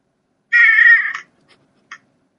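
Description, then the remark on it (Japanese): A cat lets out one loud, drawn-out, harsh yowl lasting under a second, followed by a couple of brief, fainter chirps. The cat sounds agitated, and nobody speaks. “猫がとても荒ぶる。”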